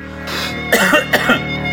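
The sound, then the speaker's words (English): Two short, harsh coughs, the first a bit longer, spaced about half a second apart over a steady low background hum. “I, well, I just feel like we've had 100 episodes and you've been coughing for 25 of them.”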